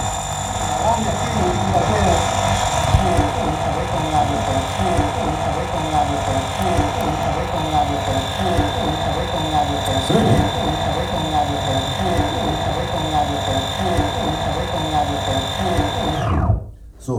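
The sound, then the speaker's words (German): A vinyl locked groove repeats a short, dense, droning loop over and over at steady volume, with sustained humming tones and a pulsing cycle, before cutting off abruptly near the end. “darin besteht, dass da einige geschlossene Rillen drauf waren.”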